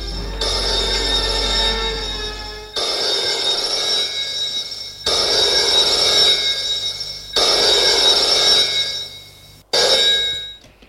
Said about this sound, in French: Le téléphone sonne.